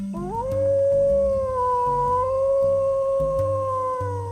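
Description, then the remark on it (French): A single long wolf howl rises and holds steady for several seconds, echoing from a distance over a low, rumbling background of dark ambient music. “il entendit le hurlement d'un loup au loin.”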